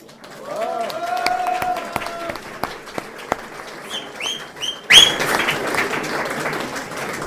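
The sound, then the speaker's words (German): Scattered individual claps give way to a louder, denser burst of audience applause partway through, applause for helpers who served 175 people twice within an hour and a half, with chirping, bird-like tones and murmuring voices in the background. “Ich glaube, die haben sich jetzt einmal einen gescheiten Applaus verdient, was die da alle zwingen gebracht haben.”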